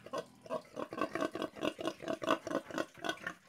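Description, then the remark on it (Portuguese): A pig grunts and snorts while eating, in a quick, steady rhythm of short bursts, with no talking over it. “ele comia fazendo aqueles barulhos, né, aqueles movimentos de porco.”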